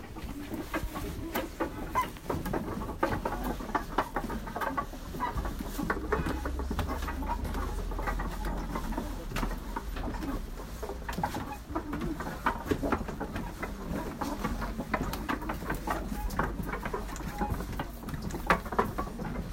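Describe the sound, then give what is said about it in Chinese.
Many wooden prayer wheels creak and squeak as they turn on the first floor of a large stupa, called Dengdeng Qudeng White Stupa on the map, a steady stream of irregular, clucking creaks layered over a low, continuous rumble throughout, with no one speaking. “在我们住的地方附近有一个很大的佛塔，在地图上它叫做邓登曲登白塔，它的第一层是可以进去的，里面也是有很多的转经轮，而且全都是木质的，转的时候会发出。吱吱嘎嘎的声音。”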